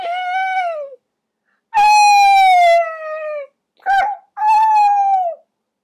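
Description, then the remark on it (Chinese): A person imitates a young deer's call with four thin, high, whining cries, each sliding slightly downward in pitch. The second is long and drawn out, and the third is a brief yelp. “我不太确定我学的像不像，还是说我听到的是小鹿的叫声呢？”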